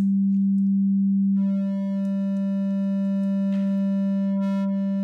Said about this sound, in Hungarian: Figyeljétek a hullámforma változását. Ugye, minél jobban klippeljük a jelet, itt ezt kell nézni az oszcilloszkópot, nem a pirosat, tehát ezt hogy annál jobban megy a, lesz a négyszög.